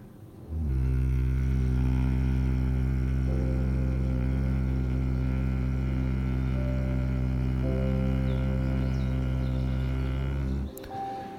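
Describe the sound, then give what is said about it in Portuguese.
A person hums a long, steady, low-pitched drone imitating a bee's buzz during a guided practice for health and vitality. The hum is held evenly for about ten seconds before stopping. “E mais uma vez, o rume, o som da abelha.”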